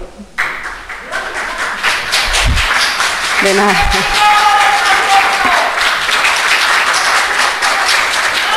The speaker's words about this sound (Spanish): Pues hubo aplausos para Vox, hay aplausos para Más Madrid. Ya digo que tiene mérito que el PP eh, en Chamartín, un distrito tan del PP, consiga cabrear y que aplaudan a los grupos de la oposición.